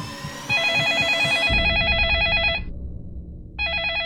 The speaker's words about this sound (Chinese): 一阵电话铃声突然响起，唐旭东全身一震，顿时清醒了过来。